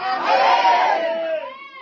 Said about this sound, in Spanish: Juan 15, verso 8. Todo el que tenga Juan 15, verso 8, grite amén.